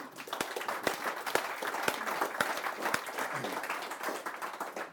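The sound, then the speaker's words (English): A crowd applauding steadily, dense overlapping claps with a few sharper distinct hand claps standing out at a regular pace, sustained at moderate volume throughout. “First of all, that's worthy of a round of applause.”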